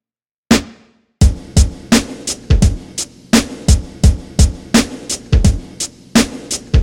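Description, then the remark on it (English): A lone snare drum hit with slight reverb rings out with a short reverberant tail, then a steady drum beat for a song kicks in, the crisp snare cracking repeatedly over the low thumps of a deeper layered kick drum, with a hi-hat resembling a producer's in an intermittent pattern, with no voices. “And a faintly echoing snare drum that's got slight reverb on it.”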